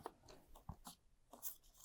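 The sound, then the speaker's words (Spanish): Papers rustle and shuffle in a quiet series of crisp scrapes, with a soft thump as the stack is set down on a surface; no one speaks. “Eh, voy a poner estos papeles acá.”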